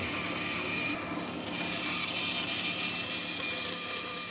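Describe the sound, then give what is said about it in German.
A piece of spruce wood being roughly cut by a saw into the shape of a horse whose tail forms a small whistle, a steady, dense rasping hiss with bright high-end noise that holds at an even loudness throughout, with no voices. “Ja, wird mal grob in Form geschnitten.”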